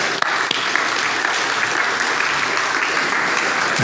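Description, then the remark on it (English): An audience applauds steadily, welcoming a speaker who is to bring the Lord's word. Many hands clap in a dense, continuous wash of sound that holds at a fairly loud level for the whole stretch, with no voices standing out. “And so let's welcome Mark as he brings the Lord's word to us. A round of applause.”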